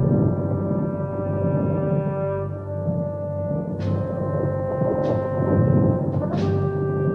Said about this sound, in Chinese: 忽然有号角声响起来，声音非常的嘹亮。以色列的百姓听到了号角声，就离开了家，聚集在一起。